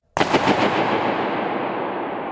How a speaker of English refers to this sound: Bursting a balloon was one of his favorites.